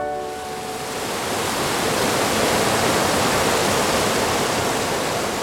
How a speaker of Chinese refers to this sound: 哦，这是河流的声音，哪一条河啊？就是河伯，黄河之神的那一条河——黄河。